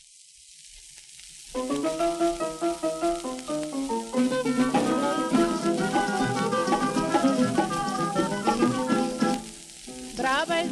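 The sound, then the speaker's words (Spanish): A recorded song kicks in after a brief hissy pause, its bright melodic instruments playing a steady, lively rhythm at a fairly loud level over a constant sizzling background noise. “Por supuesto, pues, pues esta es la canción. Vamos a escucharla”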